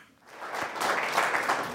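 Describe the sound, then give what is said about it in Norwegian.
Sustained applause from a large crowd at a Norwegian party meeting for Trine Skei Grande before she went to the podium: dense, steady clapping that swells after a quiet start and holds at a loud, even level with no talking. “Og i dag så fikk Trine Skei Grande lang applaus før hun gikk på talerstolen.”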